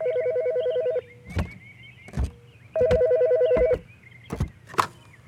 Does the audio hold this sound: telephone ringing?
yes